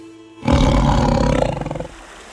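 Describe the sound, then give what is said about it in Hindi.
A single deep, rasping roar of a hungry, injured tigress in the jungles of Nepal bursts in after a quiet start, holding loud and rough for over a second before trailing off into a low, fading rumble. No one speaks. “घायल होने के बाद वो भूखी झल्लाती हुई शेरनी नेपाल के जंगलों में भटक रही थी”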